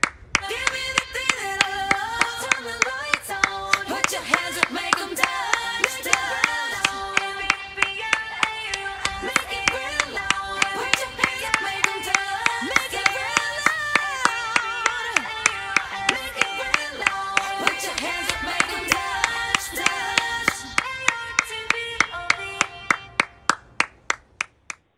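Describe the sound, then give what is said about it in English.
Steady, rhythmic hand clapping by Chopra, in appreciation for doctors, nurses and all first responders, repeats at an even beat for the whole stretch, loud, over a dense tonal background that sounds like music or singing voices, ending with a few final claps. “Wait, who who is she clapping for again?”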